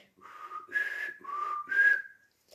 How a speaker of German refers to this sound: Ähm, und die wird über Druckluft im Einsatz betrieben. Da drücken die dann auf, im Fahrzeug auf den Knopf. Und dann wird über einen Kompressor Druckluft in diese Tröte gepumpt. Und das ist dann, als ob die pfeifen würde.